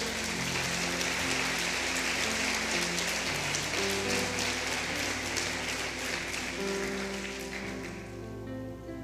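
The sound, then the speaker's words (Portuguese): A church audience breaks into loud, sustained applause for the Lord Jesus, a dense crackle of many hands clapping over steady keyboard chords, easing off slightly near the end. “Aplauda o Senhor Jesus se você crer.”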